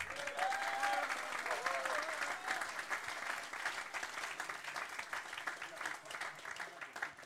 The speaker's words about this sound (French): Vous ne le savez pas, mais vous avez applaudi plein de monde juste maintenant parce qu'il y avait le groupe de jeunes qui, vendredi soir, à la fin de leur soirée, euh, ils ont mis les tables en place.